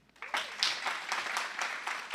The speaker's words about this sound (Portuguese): Vale um aplauso a ele?